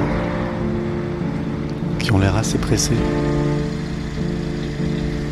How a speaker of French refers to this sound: J'attends devant, je regarde les voitures passer, tous les gens qui vont au travail